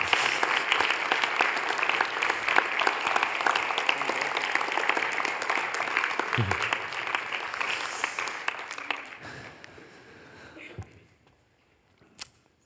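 An audience applauds loudly and steadily for about nine seconds as a man comes up on stage, the clapping dense and sustained before tapering off into near silence, with one sharp sound near the end.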